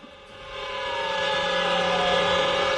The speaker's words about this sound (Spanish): lo que estamos escuchando son las sirenas antiaéreas en China, que se detuvo en la mañana de este sábado para rendir un homenaje a las 3.326 personas que han fallecido por el COVID-19.